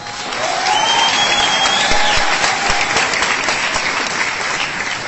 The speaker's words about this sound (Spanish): Y si estás aquí por primera vez y estás queriendo ver qué es lo que está pasando en esta hermosa ciudad, en este hermoso país, eso ya se merece de parte de todos nosotros un fuerte aplauso para todos.